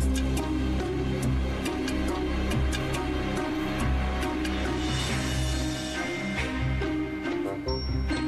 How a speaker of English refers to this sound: Guys, the dryer is making this noise. It always does. It's fine.